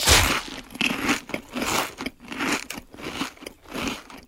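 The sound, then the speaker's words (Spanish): Crunchy potato chips being bitten and chewed, a loud steady series of crisp crackling crunches repeating about every half second with no talking. “Y hace crunch.”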